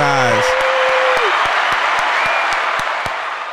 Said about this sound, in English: Not the real clap in the background.